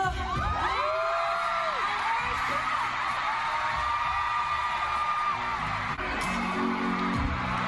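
A huge concert crowd in Mexico cheers and screams continuously as the singer's first concert there opens, a dense roar of high-pitched shrieks and whoops sustained at full volume throughout, with no single voice standing out.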